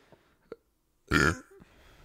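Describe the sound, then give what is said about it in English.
A single loud, rumbling burp lasting about a third of a second, preceded by a couple of faint clicks and followed by quiet. “Excuse me, miss.”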